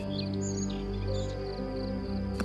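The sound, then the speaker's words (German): Faint, scattered bird chirps flit high above a steady, droning tonal background, with a brief louder rustle right at the end. “Du kannst die Vögel zwitschern hören.”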